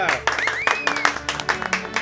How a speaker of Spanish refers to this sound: En ese momento, la quinceañera está entrando y las invitados están aplaudiendo. ¡Aplaudamos todos!